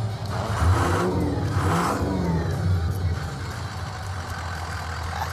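A tuned-up car engine rumbles deeply and loudly, surging in two quick revs early on before settling into a steady, throaty drone. No voices.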